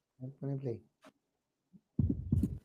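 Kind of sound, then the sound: medical sound, heartbeat sounds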